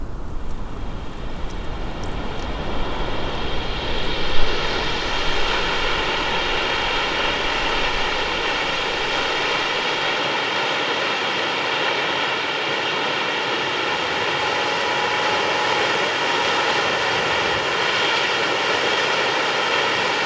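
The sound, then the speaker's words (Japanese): Kegon Falls in Nikkō, Tochigi Prefecture, Japan, roars steadily for the whole stretch, a dense, unbroken rush of falling water that stays loud and constant with no voices over it. “日本三名瀑が響かせるいい音栃木県日光市華厳の滝それではお聴きください”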